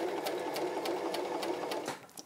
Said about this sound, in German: also mit der Nähmaschinennadel festgenäht